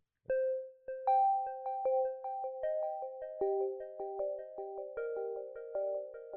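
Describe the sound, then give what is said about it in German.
A bell-like chime plays a gentle melody of bright struck notes at a steady pace, each one ringing on and blending into the next. It is clear, with no voices. “Ja, also da ist mir direkt was eingefallen, was so klingt wie eine Glocke oder so ähnlich klingt wie eine Glocke.”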